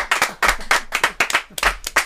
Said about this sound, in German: Wir haben Applaus. Ich weiss nicht, ob die Gäste das gehört.